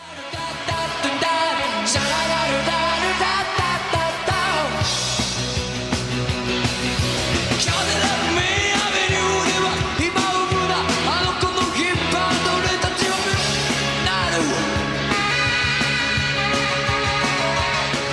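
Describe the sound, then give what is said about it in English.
A loud live rock song plays throughout, with a driving band, saxophone lines and raw, screamed vocals over a steady, pounding bass groove. “We're gonna watch a live performance. This is not okay. the studio recording. We're gonna see him in action on stage.”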